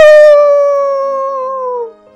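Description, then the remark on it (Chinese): A voice imitates a wolf howl: one long, loud, sustained tone that slowly glides downward in pitch over about two seconds before cutting off, with no other sounds. “摩卡抬起头，看着金色的月亮，使出浑身力气，就像狼一样放声嚎叫起来：“嗷！”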